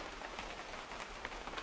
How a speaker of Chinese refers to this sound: 我打开窗帘，平静的听着雨声。